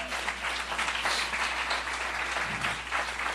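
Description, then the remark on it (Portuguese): A crowd applauds Jesus, dense overlapping claps from many hands at an even volume for a few seconds, with no talking over it. “Será que você pode aplaudir Jesus, dizer amém?”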